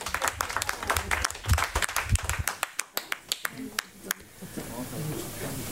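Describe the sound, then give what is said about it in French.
An audience applauds a band performing live on Fréquence Plus radio with a burst of dense, sharp clapping that gradually thins into a few scattered individual claps before giving way to a soft, steady background wash. “Et vous aussi, le public, vous pouvez vous lever, applaudir et danser avec le groupe”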